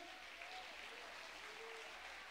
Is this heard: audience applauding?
yes